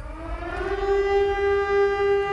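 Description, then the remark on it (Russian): A civil defense warning siren wails with a steady, sustained tone that rises slightly at the start and then holds loud and unwavering, with no voices present. The signal is meant to draw the attention of all citizens to an emergency broadcast. “А этот сигнал предназначен для привлечения внимания всех без исключения граждан.”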